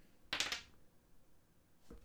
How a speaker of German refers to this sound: Ich würfel jetzt erstmal. Also, ich würfel.